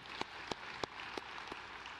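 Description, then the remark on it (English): Audience applause for those who have gone on a short-term trip overseas: a steady, soft wash of many hands clapping, with a handful of sharper individual claps standing out roughly every third of a second. “Clap for, for this.”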